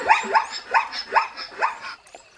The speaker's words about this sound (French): Oublions les rayures, noires ou blanches, que reste-t-il Un petit cheval, avec un hennissement qui ressemble à un rire stupide.